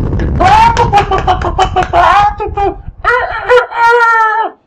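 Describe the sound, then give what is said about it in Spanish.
A person's voice imitates hens, rapid clucking and squawking bursts, then stretches into long rooster-like crows, loud throughout. “empieza a hacer ruidos así como de gallinas.”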